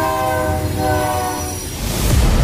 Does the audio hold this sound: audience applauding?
no